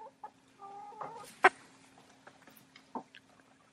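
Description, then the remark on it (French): Hens cluck in short, scattered bursts, with one sharper, louder squawk in the middle and softer murmuring calls around it, against a low steady hum. “C'est-à-dire que les poules ont un langage, elles se parlent entre elles et parfois elles me parlent aussi.”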